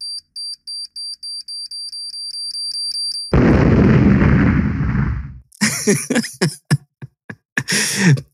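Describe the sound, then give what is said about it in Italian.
A rapid electronic beeping self-destruct countdown ends in a loud, roaring explosion effect that rumbles for a couple of seconds, followed by crackling bursts and debris-like pops. “Questo dispositivo si autodistruggerà fra 4, 3, 2.”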